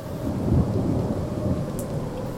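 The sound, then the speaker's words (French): A low, steady rumble of thunder rolls beneath constant heavy rain, the storm sounding broad and continuous throughout with no voices present. “Le temps était souvent à l'orage.”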